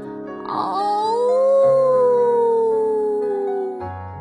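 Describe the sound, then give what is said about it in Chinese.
A single long, wolf-like howl, given while looking up at the golden moon, rises slowly in pitch, holds, then glides down and fades out over about three and a half seconds, steady and fairly loud with no talking. “莫卡抬起头，看着金色的月亮，使出浑身的力气，就像狼一样，他放声嚎叫起来。”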